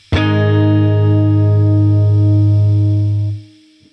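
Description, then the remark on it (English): A single A-flat major chord struck once and left ringing loud and steady, with a thick, effects-laden electric tone, for about three seconds before it is abruptly cut off. No one speaks. “So when you talk about one, four, five, one is the first note of the scale, which is A flat, and if you make a chord out of A flat major, it sounds like this.”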